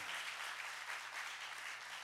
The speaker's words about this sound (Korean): 저는 어, 박수 일단 좀 주세요.